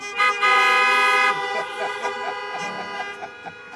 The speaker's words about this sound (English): If you hear me, honk your horn.